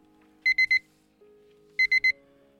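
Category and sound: signal or alarm, pager beeping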